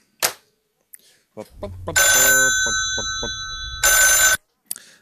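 A few clicks and knocks lead into a loud telephone ring: a shrill, bright trill that sounds continuously for about two seconds, breaks briefly, then cuts off. It is a call from Masajartsi customer service.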